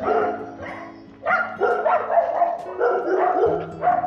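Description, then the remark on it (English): Dogs bark loudly in a rapid, overlapping string of yaps and woofs that runs almost without pause for several seconds, with no one speaking. “You shouldn't let your dogs out like that if they're going to do that.”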